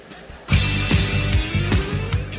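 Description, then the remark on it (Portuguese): A short radio transition jingle, a 'cortina' bumper put in by the host, bursts in after a brief quiet moment, loud, with punchy rhythmic hits and bright tonal layers driving a steady beat. “Ai, deixa eu só botar uma cortina aqui.”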